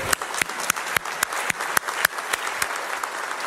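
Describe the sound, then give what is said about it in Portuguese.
An audience in a church applauds steadily, a dense wash of many hands clapping for a group of people, with a few sharper individual claps standing out at a brisk, regular pace, moderately loud throughout with no talking. “Vamos aplaudir todo esse povo?”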